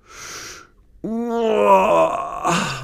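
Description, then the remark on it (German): A voice acts out a big waking yawn and stretch: a breathy inhale, a brief pause, then a long, loud, drawn-out groaning vocal that wavers before trailing off. “Hermann gähnt noch einmal kräftig, reibt sich die Augen und schaut sich um.”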